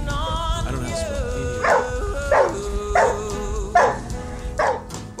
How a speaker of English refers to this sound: Um, so they do this thing called baying, which not every dog does, and it's like kind of a cross between like a bark and a howl. I'll have to play a clip of a of what that sounds like. Yeah, look up a Catahoula baying.